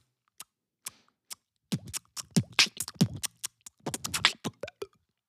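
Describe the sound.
Someone beatboxes a mouth-made imitation of kitchen stove burners ticking and hissing: a few sparse clicks, then a fast, busy run of sharp clicks, pops and breathy hisses.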